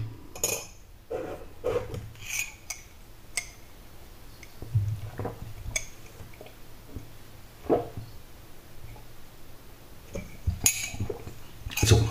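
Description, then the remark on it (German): A coffee cup being rinsed out at a kitchen sink after the coffee is finished, with scattered ceramic clinks and knocks over a faint wet, rubbing background. Moderately loud, with no talking. “Das heißt, ich kann jetzt wieder die Tasse hier schön ausspülen.”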